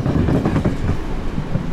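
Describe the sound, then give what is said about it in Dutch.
Train wheels rumble and clatter steadily over a rail crossing where tracks cross, a dense, continuous low roar with faint irregular clacks, fairly loud, no voices. “Maakt toch geluid, hè? Mooi toch, zo'n kruis.”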